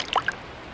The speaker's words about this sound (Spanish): Así llegó a un puente bajo el que corría un arroyo. El ratón se quedó pensativo un momento y luego, decidido, lanzó al agua el cuaderno donde había escrito su composición.